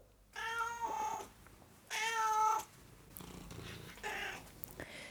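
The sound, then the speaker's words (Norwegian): A cat meows twice in quick succession, each call drawn out and fairly loud, followed by softer rustling and faint noise. “Er det ett mjau, en torpedo to mjau, en fugl, eller tre mjau, en hest. Mjau, mjau.”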